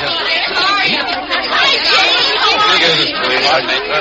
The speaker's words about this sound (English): When they open those doors out there, there's a mad scramble for the ticket booth. Usher says it's a real stampede. Maybe we should move in closer to the ticket booth then. Ah, they've opened the doors. That usher was right.